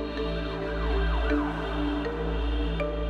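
police car siren

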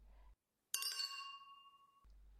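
wine glasses clinking

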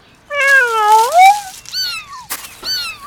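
cat meowing

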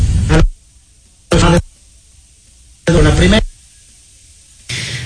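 person coughing

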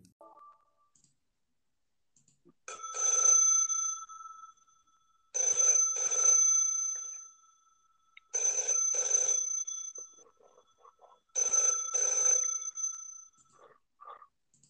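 telephone ringing

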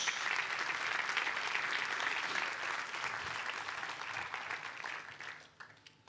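audience applauding

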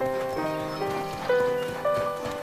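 horse hooves clip-clopping past

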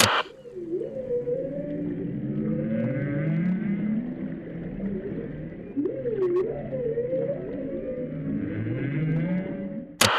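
whale song

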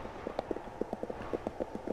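horse hooves galloping

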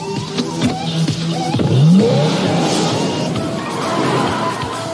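car engine revving

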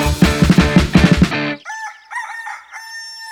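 rooster crowing at dawn

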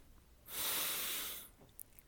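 deep breath in

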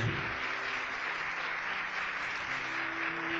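audience applauding

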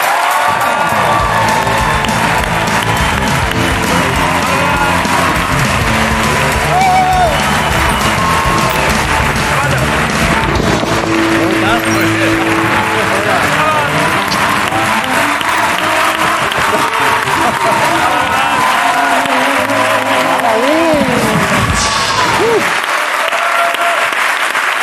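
studio audience applause

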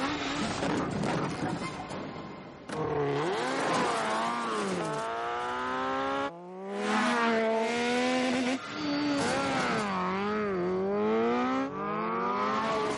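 motorcycle engines revving

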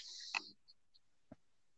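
clicking in the background

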